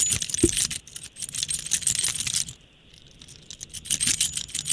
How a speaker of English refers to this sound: That's just the sound of your keys jingling. I have your keys and I'm out front.